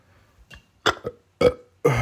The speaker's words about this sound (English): Just burp because sometimes you could do that.